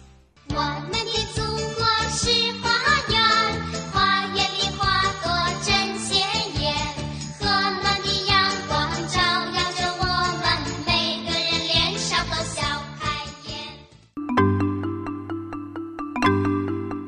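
A bright, cheerful patriotic children's song plays without vocals on China's National Day, its melody in chiming tones over a steady, bouncy beat, then a brief change to a simpler, sustained chiming passage near the end.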